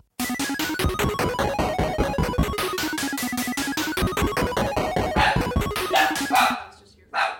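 A frantic, nonstop burst of dog barking, rapid yaps piling on top of each other like several dogs at once, loud and steady for several seconds, then a brief gap and one last outburst.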